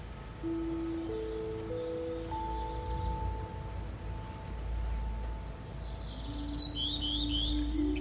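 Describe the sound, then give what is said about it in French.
Birds chirp in short, high bursts, a brief call early on and a busier flurry toward the end, fairly soft over a steady low rumble and a few sustained humming tones. No one speaks. “J'entends les oiseaux.”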